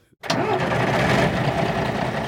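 After a brief moment of quiet, a truck engine turns over and catches, then settles into a loud, steady rumble that runs to the end; a Sivilforsvaret (Civil Defence) truck, one of 35 driving north in a convoy.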